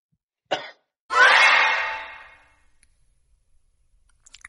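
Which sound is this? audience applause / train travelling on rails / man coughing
man coughing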